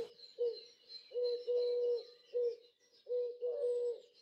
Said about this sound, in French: Mais elle mit son petit doigt sur ma bouche pour que nous puissions entendre le murmure d'une colombe sur la plus haute branche.